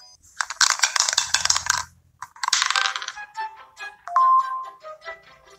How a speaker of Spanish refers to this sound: Federico arroja otra vez el dado.